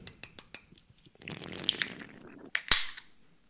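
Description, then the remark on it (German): A carbonated drink container is cracked open: a few light clicks, then a fizzy hiss and a sharp, loud pop with a brief rush of escaping gas. No one speaks. “Ich hau sie auch an, weil ich habe jetzt direkt auch Durst, muss ich ganz ehrlich sagen.”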